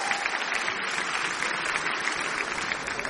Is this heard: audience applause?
yes